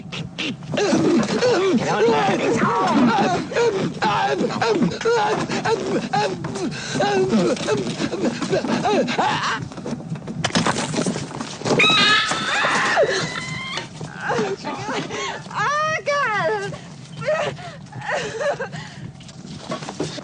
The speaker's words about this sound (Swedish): Chestbursten är den som i, i den här filmen väldigt ikoniskt splattar ur någons bröstkorg här ja, och skriker.